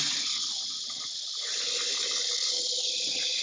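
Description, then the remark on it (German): An electric kettle heats water for vegetable broth with a steady hiss and faint bubbling rumble, continuous and even in loudness throughout, with no voices. “Wasserkocher.”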